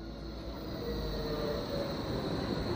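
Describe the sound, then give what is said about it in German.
A steady, loud rumble of a train at Berlin Hauptbahnhof, with a broad low roar and a faint high whine running throughout. No one speaks. “In knapp einer Stunde fährt der Zug zur ersten Station von Raus.”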